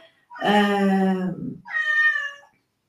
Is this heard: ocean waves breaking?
no